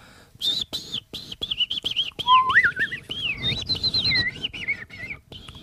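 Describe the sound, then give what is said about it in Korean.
A person imitates bird chirps as a personal trick, whistling quick high tweets with a few swooping, warbling runs that slide up and down in pitch, fairly loud against a faint background murmur. “새 소리는 네. 다들 하시지 않나요 보통?”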